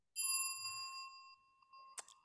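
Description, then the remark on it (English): A single bright notification bell ding rings out clear, its tones slowly fading, followed about two seconds later by a short, sharp click. “If you haven't already, please make sure to like, subscribe, and click the notification bell.”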